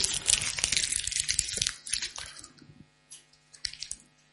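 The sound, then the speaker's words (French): A 20-euro paper banknote is crumpled, a dense burst of crisp crackling for over a second that thins into a few scattered, softer crinkles, with no one speaking. “Combien il vaut Vous êtes sûr Pourtant, il est tout froissé.”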